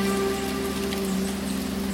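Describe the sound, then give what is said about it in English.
Steady rain falls on a grassy meadow, a dense, even patter spread across the whole two seconds, with a faint low hum running continuously underneath and no voices. “The sky spits on my dehydrated skin. The grass, now wet with rain, glitters.”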